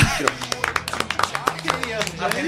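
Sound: applause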